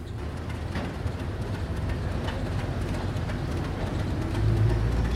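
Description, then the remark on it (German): A train rolls over a railway bridge that is a restricted zone, a steady low rumble with faint rhythmic clatter of wheels, swelling slightly louder toward the end; no one speaks. “Die Eisenbahnbrücke ist Sperrgebiet.”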